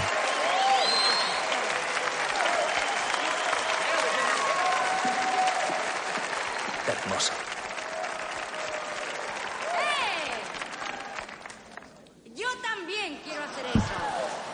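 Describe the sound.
Sustained, enthusiastic applause from a large audience as a dancing couple thanks the crowd and leaves the floor. Dense, steady clapping with some cheering voices holds loud for about twelve seconds before thinning and breaking up near the end.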